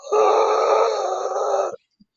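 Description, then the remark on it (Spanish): A voice imitates a zombie's groan with one loud, breathy, voiceless rasp from the throat, held steadily for about a second and a half before cutting off abruptly. “otros que directamente parece que no tienen ni voz, que parece que siempre te están haciendo...”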